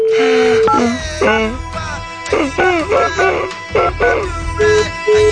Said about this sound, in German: Oh Gott, ein Faxgerät, das ist die Höchststrafe.